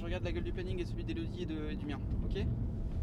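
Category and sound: vehicle, car driving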